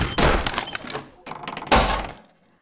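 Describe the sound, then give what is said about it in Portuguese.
A locked door is forced open by a man breaking it in, with two heavy, loud impacts about a second and a half apart, each a booming thud with a cracking, splintering edge that rattles briefly before fading out. “Abra a porta, senão eu arrombo.”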